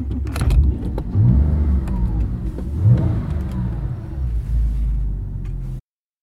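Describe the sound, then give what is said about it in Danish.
A standard Porsche 911 Carrera engine revs loudly, its deep rumble climbing in pitch in two sharp bursts before settling into a steady idle roar that abruptly cuts off. No one speaks. “Det er en Porsche 911 Carrera, det vil sige sådan en standard 911.”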